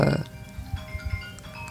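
A mobile phone buzzes in a series of short, low, rattling pulses following a brief louder burst at the start, with faint steady tones lingering above.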